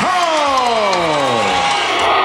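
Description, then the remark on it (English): A large arena crowd roars and cheers loudly and steadily for boxing champion Holly Holm after her win, with a long, drawn-out announcer's voice sliding downward over the din. “The crowd is on fire now for their champion, Holly Holm.”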